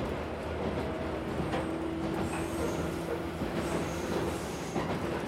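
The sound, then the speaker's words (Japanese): A train nearing its terminal stop, Chayamachi, rolls steadily along the rails with a continuous low rumble, a sustained metallic tone and faint high squeals, plus occasional soft clicks from the wheels. No one speaks. “皆様本日は馬鉄にご乗車いただきまして誠にありがとうございます次は終点茶屋町茶屋町でございます”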